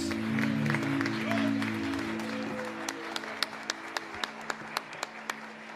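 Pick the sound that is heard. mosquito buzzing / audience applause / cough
audience applause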